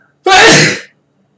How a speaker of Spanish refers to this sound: Digo yo mientras procedo a estornudar.